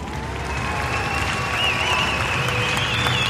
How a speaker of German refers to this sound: Ja, ziemlich langer Applaus.